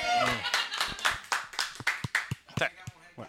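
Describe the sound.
Audience applause: a few seconds of loud, uneven handclaps from a group, with a voice briefly heard at the start beneath the clapping.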